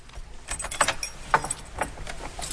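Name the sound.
keys jangling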